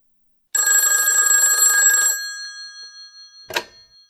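A telephone bell rings steadily for about a second and a half, bright and metallic with a lingering ring-down, followed by a short click like a receiver being picked up.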